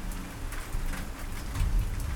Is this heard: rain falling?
yes